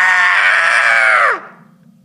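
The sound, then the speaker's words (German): A single loud, strained, sudden scream from an old man, held for over a second at high pitch before it suddenly drops and cuts off, leaving a faint low hum behind. “Der grässliche Schrei des alten Mannes kam so plötzlich und war so unmenschlich, dass ich fast die Besinnung verlor.”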